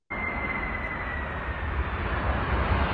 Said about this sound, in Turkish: Şimdi burada sesi duyuyorsunuzdur büyük bir olasılıkla. Motorlara güç veriliyor